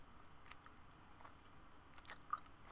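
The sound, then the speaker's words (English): Wet chewing of a soft, gummy fruit snack, with several moist smacking bursts and a sharper click near the end, quiet and right by the microphone with no talking. “I just ate a fruit snack”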